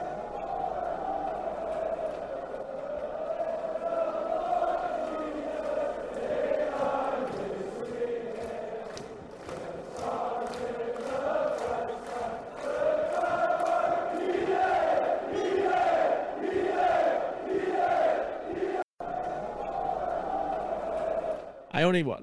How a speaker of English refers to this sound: it's called David Healy chant away in a manger, which as many people know is a Christmas hymn